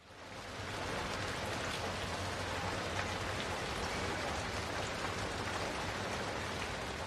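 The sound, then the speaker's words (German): An unfinished synthesizer and effects-unit piece made of a dense, rain-like wash of hissing noise that fades in over the first second, then holds steady and loud with a low droning hum beneath. “um diese ganze Technik der Synthesizer und der ähm, Effektgeräte ähm, zu beherrschen.”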